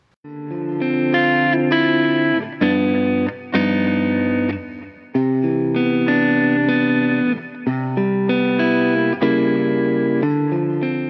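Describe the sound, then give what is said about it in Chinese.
Electric guitar played through an amplifier and picked up by a microphone, one of three different microphones compared with the same guitar, pick, pickup, effects and amp: a steady run of sustained, effect-laden chords with a bright, slightly overdriven tone, changing every second or two, with no voices. “用同一支吉他弹同样的东西，整个音色链里面啊，从拨片到拾音器到效果器到音箱都是一模一样的，唯一不同的就是用三支不一样的话筒来拾音，它们录出来的声音能有多大的不同？”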